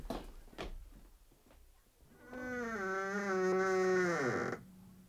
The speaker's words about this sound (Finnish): Kuulitko sinä Vilma, miten pahasti tämä Noitalinnan ovi on ruvennut narisiin? No eihän sitä tuota tuomusta ääntä voi olla kuulematta. Se näyttää vallan turvonneenkin.